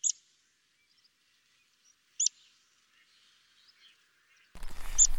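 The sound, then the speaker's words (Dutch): Meadow pipit flight calls: three brief, thin high-pitched 'pseet' notes spaced a couple of seconds apart, clear, the last one over a burst of rough wind-like noise. “En de graspiepers hebben zo'n heel, eh, heel eh, zacht uh, eh, piepje, piepgeluidje, vaak een paar keer.”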